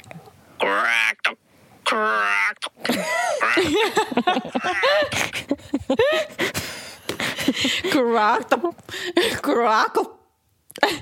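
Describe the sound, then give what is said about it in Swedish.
A woman's voice imitates a raven's call, repeating several short, harsh croaking cries, mixed in with bits of her ordinary talking. “En korp låter cracks, cracks, typ. Eller kra, kra. Eller krax. krax.”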